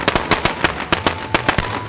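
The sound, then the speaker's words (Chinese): A string of Chinese New Year firecrackers going off in a rapid, uneven crackle of sharp, loud pops, roughly a dozen bangs in two seconds, with no voices. “鞭炮要挂得很高很高，然后这个时候我爸爸或是其他比较大的小孩就会帮忙点燃鞭炮，然后我们这些其他小小朋友就躲在角落，因为要离鞭炮远一点，不要被鞭炮炸到，然后这个时候鞭炮就会发出。”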